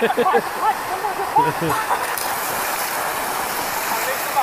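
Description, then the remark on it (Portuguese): Steady rushing wash of sea waves on a beach fills the whole stretch at a moderate, constant level, with a voice talking over it during the first couple of seconds. “Olha a oferenda aí, ó. Nem o mar tá querendo.”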